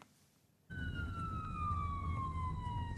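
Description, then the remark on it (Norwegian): A police car siren starts abruptly and wails loudly and steadily, its pitch gliding slowly downward over a heavy low rumble of traffic or engine noise. “Sirener og dagens utstyr er ikke nok.”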